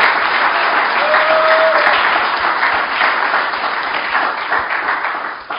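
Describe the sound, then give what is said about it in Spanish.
A church audience claps in praise of Christ in a dense, steady wash of applause lasting several seconds, loud and sustained with a brief whistle-like tone rising above it, then thinning slightly at the end. “Dele palmas al que vive.”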